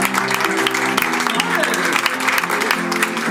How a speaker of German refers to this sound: Hallo, Applaus für diese schöne Mann.